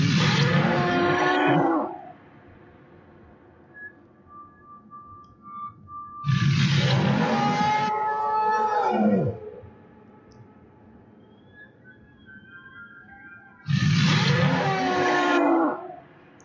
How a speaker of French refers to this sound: Ah, vous entendez absolument euh, un Léviathan. J'aurais dit une baleine. Alors je vais te laisser laisser la, petite musique en fond, puisque là euh, j'ai mis des sons en fait d'un animal du jeu